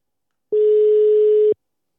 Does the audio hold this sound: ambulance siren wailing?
no